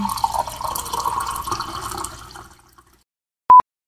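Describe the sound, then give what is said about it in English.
Tea pours into a cup with a steady splashing trickle for about two seconds, then tapers off into silence, followed by a brief, sharp electronic beep. “I'm gonna pour my tea right now, just a second.”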